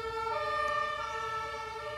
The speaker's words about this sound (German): und bevor wir anfangen, warten wir die Sirenen der Feuerwehren draußen in Jena ab.